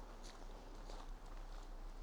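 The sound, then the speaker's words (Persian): Footsteps crunch through dry leaves on ground wet from rain that stopped an hour earlier, about three soft, evenly spaced steps at an unhurried walking pace along a path in nature, quiet, with no voices. “همین یک ساعت پیش داشت اینجا بارون می اومد که بارون قطع شده زمین خیسه و برگ های خشکی هم که زیر پای من دارن برای شما موسیقی میزنن”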